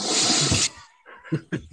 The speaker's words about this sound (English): so write us in, write in if you like the Olympics, and we'll flush those right down the toilet.